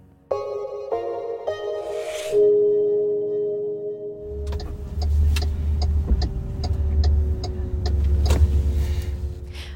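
Inside a car, a few electronic chime tones give way to a steady low engine rumble, with a regular clicking tick running over it. No one speaks.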